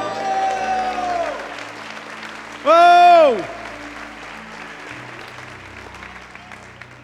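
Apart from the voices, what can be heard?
audience applauding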